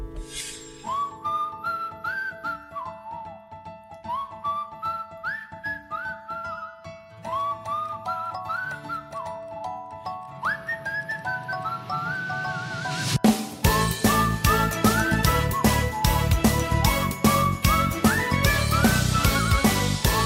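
A Vietnamese song opens with a bright whistled melody rising and falling over soft backing, then the full band kicks in loudly around the midpoint, with the whistled tune continuing on top. No talking.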